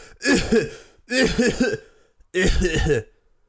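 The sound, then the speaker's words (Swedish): Three deliberate, voiced coughs, each a short rough burst with brief pauses between, sounding more performed than natural, like a person faking a cough. “Åh oh, nej, jag hostar. Hosta lite.”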